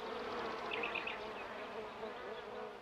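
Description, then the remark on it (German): A dense, continuous buzzing of many honey bees at a hive, steady, with overlapping wingbeat hums and a few brief higher-pitched whines rising out of the swarm. “Bleibt zu hoffen, dass die Bienen hier und anderswo noch lange fit bleiben, denn nur gesunde Bienen sind ja auch fleißig, bestäuben unsere Pflanzen und produzieren viel süßen Honig.”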